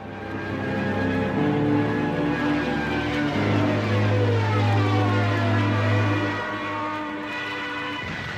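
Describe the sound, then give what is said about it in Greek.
A loud, sustained whistling drone of a diving German warplane and its bomb, its layered tones holding steady while higher pitches bend and slide, filling about eight seconds with no voices. “Δεν πρόφτασα να ξαναπιάσω την κουβέντα και το χαρακτηριστικό σφύριγμα της βουτιάς του αεροπλάνου, της μπόμπας και η έκρηξη.”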